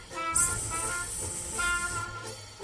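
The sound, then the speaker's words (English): A boa constrictor's loud, sustained hiss, sharp and airy, that holds steady for nearly two seconds and then cuts off, with a faint tonal hum underneath. “hissing like a boa constrictor?”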